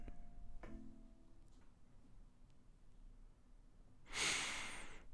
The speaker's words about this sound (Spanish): el espíritu y aire mismo del universo. respiración, respiración, respiración.